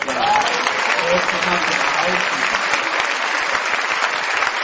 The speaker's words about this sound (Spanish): Dale un aplauso.